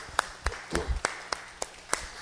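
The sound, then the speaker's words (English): An audience claps hands together in praise of God the Father, God the Son and God the Holy Spirit, in steady unison, about eight sharp, crisp claps at an even beat, with no talking over them. “All right, so let's give God the Father, God the Son, and God the Holy Spirit a hand clap.”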